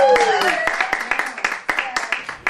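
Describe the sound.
A small audience at a house concert in a living room claps as a singer from East Nashville comes to the middle of the room, producing sharp, uneven bursts of applause, while a voice lets out a rising-then-falling cheer at the start and other voices murmur underneath.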